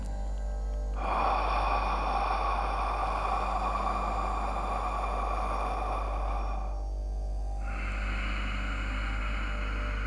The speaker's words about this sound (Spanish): una inhalación por la nariz y una exhalación por la boca generando así un ciclo en el que vamos a respirar durante tres minutos.